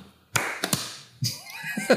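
A brief burst of clapping: a few sharp, loud hand claps in quick succession, with more claps and a voice joining in toward the end.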